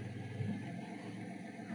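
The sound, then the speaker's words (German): A tradesman's car drives through, its low engine rumble steady and fairly quiet for the whole moment, with no voices over it. “Mit seinem Auto hier durchfährt.”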